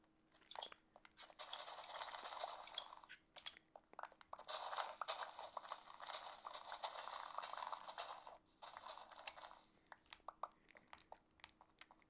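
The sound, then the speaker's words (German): Rapid, continuous crunchy rustling of leaf blocks being broken quickly with shears in a video game to farm leaves, in dense bursts from about 0.5 to 3 seconds and again from 4 to 9 seconds, then sparser crunches. “Guck mal, du kannst ja Blätter mit einer Schere so schnell abbauen. Deswegen farme ich jetzt Blätter und hier ist so ein Wasserloch, was mich nervt.”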